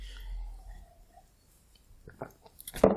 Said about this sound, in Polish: że się wody chyba napić.